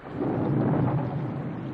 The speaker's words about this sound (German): Es ist schon spät und ein heftiger Sturm tobt über das Dorf.